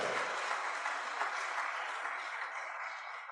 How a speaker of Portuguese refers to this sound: Você pode dar um forte aplauso a Jesus?